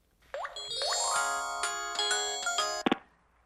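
A phone plays a bright electronic ringtone late at night, opening with two quick rising chirps and then a sustained melodic tune for a few seconds before cutting off abruptly with a click.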